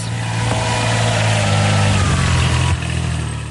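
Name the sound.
tractor engine running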